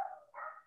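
Two quick, yelping barks from dogs, fairly faint, with no voices over them.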